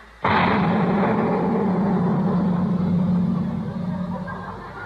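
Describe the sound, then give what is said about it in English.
A giant firecracker put in a can goes off with one sudden, loud bang, then a broad roaring rumble that lingers for several seconds and slowly fades. No voices are heard. “It was just sort of a giant firecracker, Miss Brooks.”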